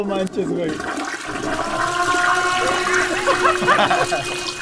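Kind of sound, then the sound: household object, toilet flushing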